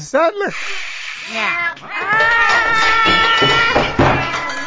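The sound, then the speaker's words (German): A drawn-out, wavering cat yowl, seemingly voiced by a person imitating an angry cat, rising and falling in loud, continuous howls for several seconds. “tu dein Werk und verkratze ihre Visage. Also so lange, bis sie den Prinz freilässt. Miau!”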